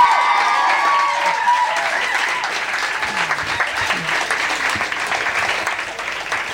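A crowd applauds steadily with dense, fast clapping and some cheering mixed in, loud and sustained throughout, fading slightly toward the end, as an audience applauds a poet after a poem at a poetry event.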